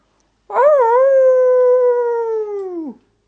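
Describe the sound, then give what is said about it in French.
A wolf cub howls once at night, a loud, high-pitched cry that wavers as it rises, holds a long steady note, then drops away, with silence around it. “Un cri dans la nuit.”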